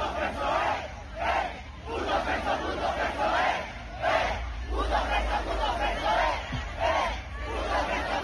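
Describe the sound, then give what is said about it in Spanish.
A large crowd at a live show shouts together in loud, rhythmic bursts, a chant rising and falling about once a second over a constant roar of voices. “Tuvo un show por allá, Chequéate lo que le gritaron.”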